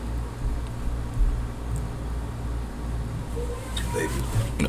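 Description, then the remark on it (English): Cars drive by outside a home, a steady low rumble of road traffic that swells slightly as vehicles pass, with faint indistinct voices and babies in the background. “So y'all hear cars coming by and all that stuff, and you hear some babies in the background.”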